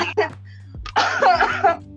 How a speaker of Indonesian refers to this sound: Ya ampun Sampai batuk.